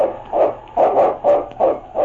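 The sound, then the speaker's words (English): A dog barks loudly and repeatedly, about five or six sharp barks in a quick, steady rhythm, with no voices over it, with the lo-fi sound of an old recording; it is Yukon King, the lead sled dog of Sergeant Preston of the Northwest Mounted Police in the radio drama The Challenge of the Yukon. “It's Yukon King, swiftest and strongest lead dog of the Northwest, blazing the trail for Sergeant Preston of the Northwest Mounted Police in his relentless pursuit of lawbreakers.”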